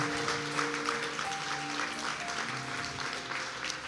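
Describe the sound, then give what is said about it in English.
An audience applauds, a steady wash of many hands clapping at an even level for several seconds, with faint sustained musical tones underneath and no one talking. “Come on, church, let's give them one more clap.”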